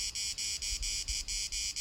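Crickets chirp outdoors in nature in steady, rapid pulses, a high trilling that repeats about every quarter second with brief gaps, continuous over a low background rumble. No voices.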